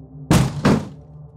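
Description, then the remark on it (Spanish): A wooden plank that was once a door topples to one side as its hinges give way, raising a cloud of dust and landing in two heavy, clattering thuds in quick succession, loud against a low background hum. “En medio de la acción, los goznes se dieron y el pedazo de tablón que antes fue una puerta se desplomó a un lado, levantando una nube de polvo que hizo a Nick estornudar.”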